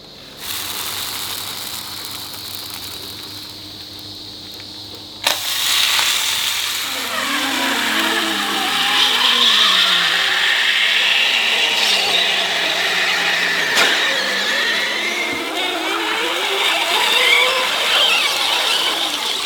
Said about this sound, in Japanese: 今朝は江ノ島朝日本店丸焼きエビせんべいのいい音